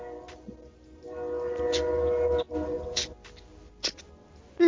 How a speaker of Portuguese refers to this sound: Tá passando um trem.